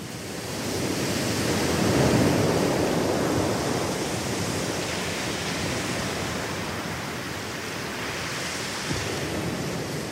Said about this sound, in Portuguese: Já que tá difícil de viajar por conta do fim do mundo, bora ouvir um pouco o som do Oceano Pacífico na praia de Kaikoura, lá na Nova Zelândia, terra do povo maori.